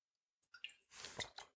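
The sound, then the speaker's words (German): A quiet sip of water: a few small wet clicks and mouth sounds, then a brief soft slurp and swallow. No one speaks. “So, nach einem kleinen Schluck Wasser geht's jetzt auch direkt weiter.”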